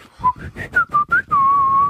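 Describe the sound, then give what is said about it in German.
Someone whistles a short melody in imitation of a musical car horn: six quick bright notes stepping up and down, then one long held note, clear and fairly loud with no talking. “Genau, das heißt, wenn man auf die, auf die Hupe drückt, dann kommt nicht ein, sondern dann kommt hm. ein.”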